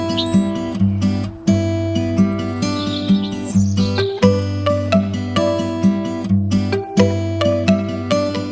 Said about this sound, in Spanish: Ese pájaro